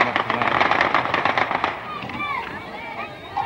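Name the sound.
gunshots being fired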